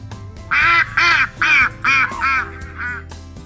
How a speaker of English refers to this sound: They see a duck in the river.